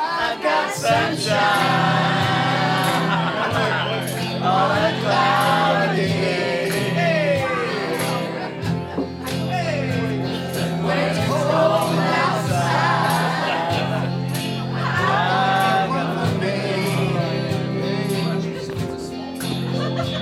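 A live band plays a soul song, with a steady bass line, drums, and a lead vocal rising and falling over the instruments. The music stays loud and full throughout.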